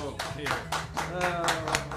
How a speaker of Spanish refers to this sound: un, aplauso, un aplauso